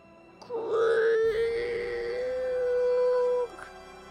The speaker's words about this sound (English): Huh? That that sound. It's the great cogwheel. It's starting to turn.